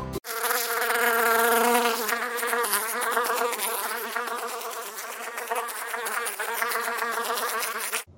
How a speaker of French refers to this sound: Une abeille arrive. Elle se met à tourner autour de Mona.